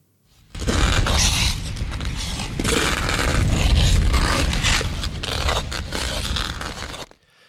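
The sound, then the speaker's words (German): Ice skate blades scrape and creak across ice as one skater follows another, one long, loud, continuous grind with gritty rasping surges and no voices, stopping abruptly after about seven seconds. “das haben wir tatsächlich mit meinen Schlittschuhen damals aufgenommen ja, und der Maike ist hinterhergefahren. Das knarrende, kratzende Geräusch.”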